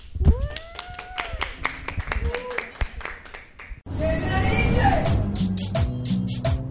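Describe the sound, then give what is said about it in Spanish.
A few sharp, scattered claps and some short tonal calls, then a full burst of dense, steady applause from a group for a guest at the end of an interview recorded in Medellín, with voices mixed in, continuing to the end. “Muchas gracias a todos y un aplauso”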